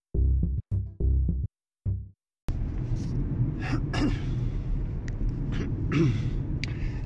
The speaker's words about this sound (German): Jedes Mal drücke ich auf die Aufnahme und muss mich erstmal räuspern.